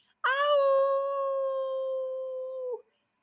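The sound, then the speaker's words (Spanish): A person imitates a wolf-like howl at the moon with one long, steady, drawn-out note lasting a couple of seconds. It rises briefly at the start, then holds clear and fairly loud before cutting off. “Plantas de lo que tengas límpiate hoy con esta luna y después de que te limpies, préndele una vela blanca a la luna y sal a aullarle así.”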